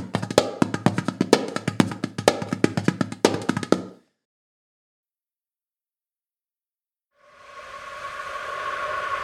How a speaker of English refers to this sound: a foreign drum like a dudabek, which sounds like this.